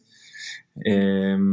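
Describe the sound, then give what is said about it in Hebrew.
A brief crinkly rustle of a plastic trash bag being replaced in a bin at a WeWork office, lasting about half a second, followed after a short pause by a person's drawn-out hesitation sound. “אגב סליחה על הרעש, החליפו פה שקית בפח מאחוריי בווי וורק, אז אני מלא בחברה מסביבי, כמו שאתם מבינים.”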